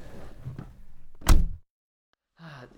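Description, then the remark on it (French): A car's remote central locking unlocks all the doors at once with one sharp, solid mechanical clunk, loud and brief, following low muffled rustling, then a moment of silence before faint noise returns. “Hop, ah oui, ah ah, ah, ouverture. Belle automobile. Centralisée.”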